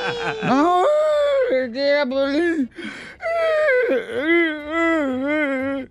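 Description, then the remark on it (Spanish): A person cries and whimpers, letting out loud, wavering, high-pitched wails that run almost continuously, broken only by a couple of short gasping breaths midway. “Ahora, ¿por qué lloras? De ver, estás llorando”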